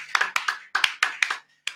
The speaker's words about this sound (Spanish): Está muy bien, aplausos, aplausos.